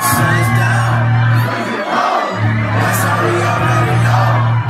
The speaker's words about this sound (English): The minute that he reached the stage. I mean, phones went up and people were screaming. It was definitely a, a nice surprise for everybody.